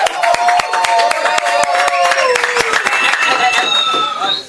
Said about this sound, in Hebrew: מדהים, מדהים, תודה רבה. כפיים לצייר הראשון.